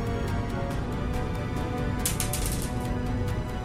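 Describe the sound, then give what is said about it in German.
A small four-sided die (a W4) rattles and clicks as it's rolled, a quick burst of sharp tapping clatter over a low background hum, with no one speaking. “Würfel im W4, bitte.”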